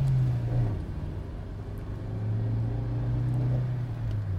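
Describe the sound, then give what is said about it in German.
A car winds its way through a city, its engine a continuous low rumbling drone that swells slightly midway, with no one talking. “Der Wagen schlängelt sich durch die Stadt und verlässt langsam die Gebiete.”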